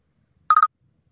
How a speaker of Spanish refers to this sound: Ah, ahí estamos recibiendo la llamada. El caballero del momento. Vamos a, contestarle.